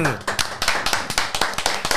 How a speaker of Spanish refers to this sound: Vamos a darle el aplauso, por favor.